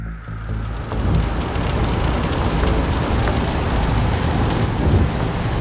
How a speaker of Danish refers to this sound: kører vi ind i Vukovar by lige om lidt. Vi er tilbage i den grå Mitsubishi i regnvejr i det østlige Kroatien.